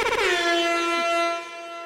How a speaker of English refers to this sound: Nice. He, gets an air horn for that accomplishment.